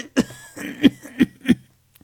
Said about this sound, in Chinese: 很艰难的说着，很决绝，说的咳嗽起来了，吐出来一口带血的唾沫。